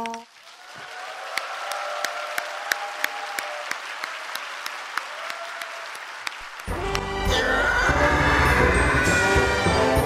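An audience claps steadily, a dense patter of hands with sharp individual claps poking through, and partway in a loud burst of music swells up over the continuing applause.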